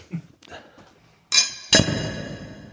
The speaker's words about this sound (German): Gut, wollen wir einfach mal, wollen wir einfach mal anstoßen, Freunde der Sonne und des Podcasts.